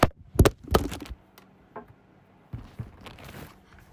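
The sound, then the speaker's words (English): A phone drops with a cluster of sharp clattering knocks, followed by a pause and softer scraping and fumbling as it is handled. “I just dropped my phone.”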